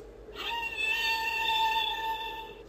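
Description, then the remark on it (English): A single drawn-out whale call from a toy sound book, a bright tonal cry holding a steady, slightly wavering pitch for about two seconds, loud with no talking. “The whale is biggest of all.”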